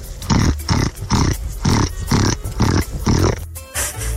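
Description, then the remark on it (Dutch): A person imitates a pig, making a rapid series of loud guttural grunts in a steady rhythm, about eight bursts, with no talking. “heeft een eh, heel aardig varken in zich. Het geluid van een varken.”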